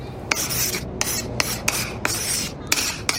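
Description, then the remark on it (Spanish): Chalk scratches steadily across a green blackboard in a school in raspy strokes, punctuated by several sharp taps as it strikes the board, with no voices. “El gis.”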